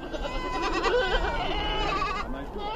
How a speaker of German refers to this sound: Eine Herde Ziegen zieht durch die karge Ebene im Norden Kenias, das Land der Samburu, nomadische Viehzüchter, die stolz sind auf ihre traditionelle Lebensweise